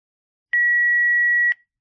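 A single long, steady electronic beep from a doctor's office answering machine before recording, sounding loud and clear for about one second with a faint click at start and end, then silence.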